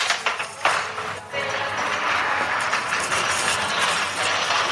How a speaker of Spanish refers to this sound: Eso que hoy es el carrito. Lo voy a coger para que no haga tanto ruido.